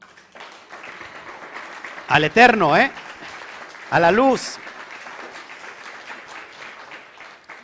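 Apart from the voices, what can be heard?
audience applause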